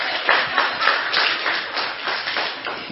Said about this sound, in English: You didn't you didn't have to clap for that. I appreciate that.